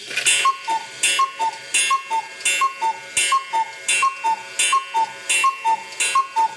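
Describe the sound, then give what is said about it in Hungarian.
A clock ticks steadily on its own, each beat a crisp two-part tick-tock with a slightly higher then lower tone, repeating about twice a second with no voices. “Mire vége szakadt a nagy cuppogásnak, hízelkedésnek, kilencet kakukkolt az óra.”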